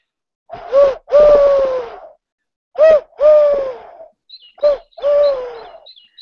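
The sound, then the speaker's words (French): A person imitates a turtle dove's cooing: three breathy two-part calls, each a short note followed by a longer, drawn-out one, with brief pauses between them. “je vais vous faire la tourterelle, mes chers amis.”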